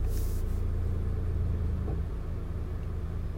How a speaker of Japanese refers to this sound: 車の中でエアコンかけながら収録させていただきたいと思います